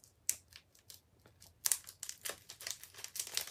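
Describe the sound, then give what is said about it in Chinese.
A 2019 player trading card pack being torn open: crisp crinkling and ripping of the foil wrapper in uneven bursts, with sharp crackles and a louder rustling stretch toward the end. No one speaks. “不知道现场开箱，哎，好像可以直接撕，哎，还是要还是用剪刀？”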